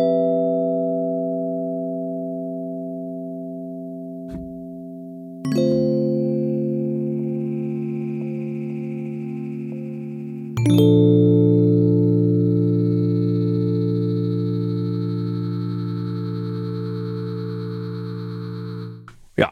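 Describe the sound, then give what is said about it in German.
Sustained synth chords ring out in three long held blocks, each new chord struck with a sharp attack, wobbling and shimmering with drift and scattered high-pitched glitchy artifacts above the harmonics; the synth's scatter and drift effects are both set to 100 percent. “Und das kann ich jetzt natürlich auch kombinieren und sagen, ich baller jetzt beides, Scatter und Drift auf 100 Prozent.”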